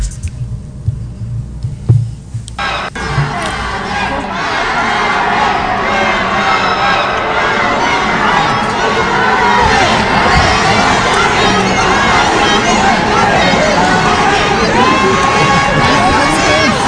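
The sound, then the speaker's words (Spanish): A large crowd at the Mexico City airport cheers and shouts continuously to welcome Alfredo Adame on his arrival. The cheering is loud, with high-pitched voices and excited calls swelling after a brief quieter start. “Así fue como, como fue recibido en el aeropuerto de la Ciudad de México.”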